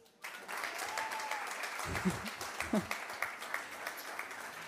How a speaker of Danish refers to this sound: Og jeg vil meget gerne lige øh, klappe lidt af ham.